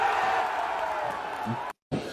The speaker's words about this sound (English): You got to hear the crowd. That makes it.